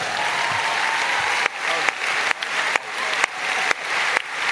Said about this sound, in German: Bitte nochmal mit einem Applaus auf die Bühne drauf